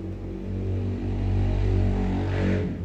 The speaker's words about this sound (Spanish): hay una calle principal al frente y normalmente van a pasar ahí camiones y motos.